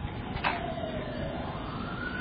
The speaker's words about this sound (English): by the way, since we're hearing a siren and it's, it's we're, we're, talking about it right now, a person, if you hear a siren, you have to daven. You have to daven at that moment because there's someone there's someone in trouble right now.